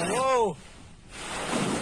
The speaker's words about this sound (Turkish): Of! 2 metre aşan dalgalar Sarayburnu sahil yolu şu an.